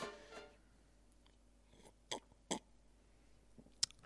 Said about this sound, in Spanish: Y ahora le voy a dar un trago